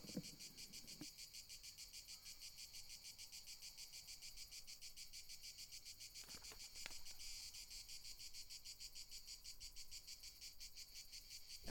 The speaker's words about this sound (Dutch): als je die cicades hoort, dan voelt je eigenlijk de warmte er al bij. Ik zit eh, een beetje noordelijker dan eh, mijn eerste stopplaats hier in Zuid-Frankrijk. En eh, dan betekent dat dat die cicades er onmiddellijk ook bij komen,